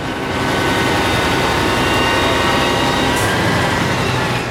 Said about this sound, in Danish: Nu står der sådan med øh, brandbilen, det kommunale brandvæsen. Prøv at høre, prøv at høre brandbilen en gang.